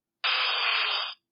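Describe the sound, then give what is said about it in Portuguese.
A retro 8-bit Pokémon cry sound effect in the old first-generation game style: one harsh, buzzy electronic screech lasting about a second, loud and steady, then cutting off abruptly, with no voices around it. “eu gostava que eles metessem as vozes do, do, dos Pokémons quando tu lanças um, porque eles ainda continuam ao estilo antigo. O que significa que os Pokémons soam assim, por exemplo.”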